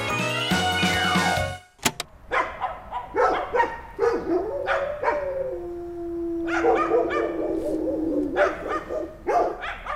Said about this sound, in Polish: Co roku jeździłam do babci na wakacje i kiedy zasypiałam, był już późny wieczór, nasłuchiwałam przez uchylone okno szczekających psów. Bliżej, dalej.